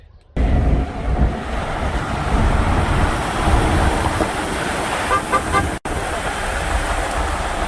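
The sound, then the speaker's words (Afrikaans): A car horn toots three times in quick succession, the three-toot greeting for the Vita Day Africa vehicle, short and fairly faint, over a steady loud rush of wind and road rumble that fills the whole recording. “As jy agter ons ry en jy kom dalk verby en die kans dat jy verby gaan kom is baie goed omdat ons ry nogal stadig en baie swaar gelei, dan gee jy uh drie toete. Toet toet toet.”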